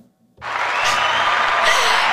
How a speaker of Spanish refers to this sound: Ya sentí los aplausos de todo el público que nos está escuchando el día de hoy.